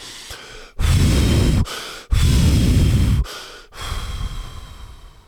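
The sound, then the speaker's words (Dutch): Three loud, forceful, deliberately exaggerated exhales in a row by a person getting into an ice bath, each a long, breathy whoosh, with short gaps between them; the last one is softer and trails off. “En dan, ik blaas echt heel overdreven en hard uit een paar keer.”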